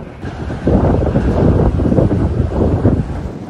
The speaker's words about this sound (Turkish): Marmara bölgesinde lodos etkili. Bursa'da rüzgarın hızı saatte 70 kilometreye kadar çıktı.